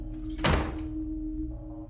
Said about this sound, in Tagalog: Pumasok si Daddy at sinara ang pinto.